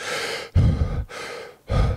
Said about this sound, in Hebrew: שיטת הנשימה אה, של, של ווים הוף אה, אה, מבוססת על היפרוונטילציה. היפרוונטילציה זה נשימת יתר נשימת בעצם. נשימת יתר, זה אומר שהגוף, חזרתית. זאת אומרת, ש... הרבה נשימות מהירות, חזקות וגדולות מאוד במשך פרק זמן מסוים.